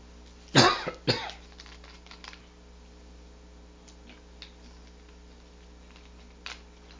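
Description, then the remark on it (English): Two quick, sharp coughs in the first second, followed by a long stretch of quiet room tone with a steady low hum and a few faint clicks. “Since I make a quick coughing there, a little drink of water.”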